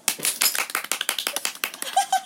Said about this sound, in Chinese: 如果有数出正确数字的朋友，我们将会提供你一段热烈的掌声。